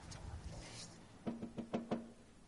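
A vendor's hand strikes a shop counter five times in quick succession, dull wooden thumps with a low resonant ring, following a second of quiet background murmur.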